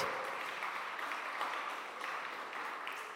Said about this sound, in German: Wir können euch einen Applaus geben eigentlich. Ihr macht es möglich.